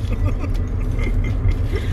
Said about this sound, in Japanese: さっきからずっと気になってたんだよ、あんたそのバリボリバリボリ。